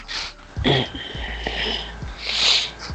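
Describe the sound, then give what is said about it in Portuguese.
A person sneezes from an allergy, a sharp burst early on followed by a hissy, breathy second sneeze a couple of seconds later, with faint background noise in between. “Ah, espirro. Não, é eu que tô espirrando agora.”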